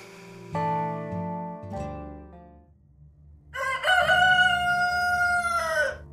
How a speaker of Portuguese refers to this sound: As repetidas vezes que o galo cantou não foram suficientes.